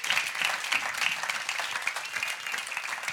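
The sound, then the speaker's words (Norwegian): A steady wash of audience applause, many hands clapping densely and evenly at moderate loudness for a few seconds, with no voices standing out. “Ja, gi han en klapp.”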